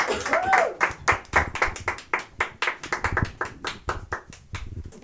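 Audience applause: a run of sharp, crisp claps in a quick, slightly uneven rhythm, steady and fairly loud throughout, with a brief voice or whoop near the start.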